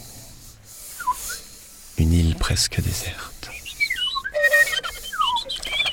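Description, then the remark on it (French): Several people in an audience whistle short, chirping birdlike calls, imitating birds on an island in the sea for a performance of Shakespeare's The Tempest. The calls are scattered and overlapping, with a brief spoken phrase in the middle and a soft breathy hiss underneath. “Une île au milieu de la mer et des oiseaux.”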